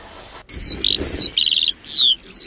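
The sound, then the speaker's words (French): Birds chirp in a quick series of bright, high notes, short descending whistles alternating with rapid trills, clear over a faint low background hum, in a town square. “On peut aussi entendre des oiseaux, les vélos qui rebondissent sur les pavés.”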